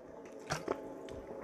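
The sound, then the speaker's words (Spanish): Someone takes a quick sip of water, with two soft wet swallowing squishes and no talking. “Voy a tomar un poquito de agua.”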